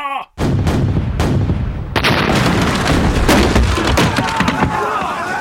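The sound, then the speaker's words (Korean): Heavy, rapid cannon blasts pound one after another in a dense, continuous barrage as cannons fire to break the gate of the Sacheon fortress, loud and booming with a crackling, splintering edge throughout. “대포를 쏘아 성문을 부수어라!”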